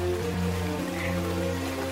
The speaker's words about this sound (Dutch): Intussen is het eind juli, begin augustus in de tuin van Kaat en daar is de regen.